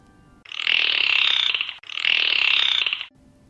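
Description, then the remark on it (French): Two long, buzzing bursts of dolphin calls coming from the sea, each a rapid, high-pitched chattering trill lasting over a second, separated by a brief pause, loud and with no voices. “Splash le dauphin (Avec des sons naturels)”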